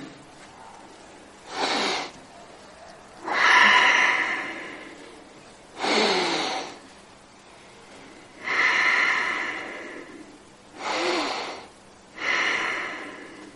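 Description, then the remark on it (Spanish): Six slow, deliberate, loud breaths demonstrating the letter H pronounced as an 'ah' breath, with shorter, sharper intakes alternating with longer, airy exhales, each separated by a brief quiet pause, with no talking. “Estas, estas primeras son, las podemos pronunciar como un ah", porque es una respiración.”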